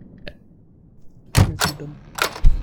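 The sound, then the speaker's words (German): Someone runs out of a door, pushes it shut from the outside with a heavy thump, followed by a few sharp rattling clacks and a final knock as it is locked. No one speaks. “Ich renne einfach aus der Tür, mach sie von außen zu und schließ ab.”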